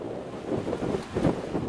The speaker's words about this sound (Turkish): Ege kıyılarında dalgalar kıyıyı dövdü.